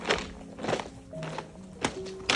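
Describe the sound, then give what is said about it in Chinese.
Footsteps on stones along the Mianyue Line at Alishan, recorded on a trip: about four uneven, gritty crunching steps with short scuffs between them, moderately loud, with a faint steady tone lingering in the background. No one speaks. “只能说大自然真的很有魔力耶，呃，无论是踩在石头上的声音，”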